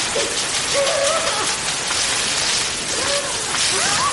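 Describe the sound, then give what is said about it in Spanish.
A powerful jet of water from a pressure hose, used by a nurse to bathe a woman cornered between three walls, hisses loudly and continuously for the whole stretch, with a few faint, wavering tonal sounds surfacing briefly beneath the spray. “Más tarde una enfermera la baña utilizando una manguera a presión.”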